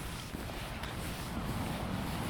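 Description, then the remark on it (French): Steady, blustery wind roars across the microphone in a continuous wash of noise by the sea near the ferries at Beppu, Japan, in rainy weather, heavy in the low end, with no voices and no distinct individual sounds standing out. “On est au bord de la mer.”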